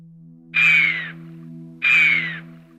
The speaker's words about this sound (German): Ihr Pfiff warnend, Ihre Gestalt elegant ihre Kletterei meisterhaft. Die Rede ist von der Gams, einem der Bergtiere schlechthin.